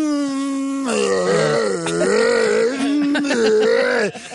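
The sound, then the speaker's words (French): A voice imitates a sputtering electric lawnmower winding down, a strained, buzzing drone that wavers and dips in pitch before cutting off abruptly near the end. “Pour vrai, c'est une tondeuse électrique que j'ai tu sais, quand tu pars, tu sais qu'il y a des herbes qui sont là.”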